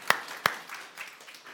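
An audience applauds a volunteer who had put his whole weight on a small chair: two sharp claps stand out at the start, then a softer scattered patter of clapping continues briefly at moderate volume, with no one speaking.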